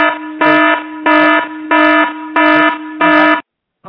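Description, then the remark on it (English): A loud, harsh electronic buzzer blares in five evenly spaced pulses, each about half a second long, sounding like a fire alarm, then cuts off into silence. “I thought that was a fire alarm.”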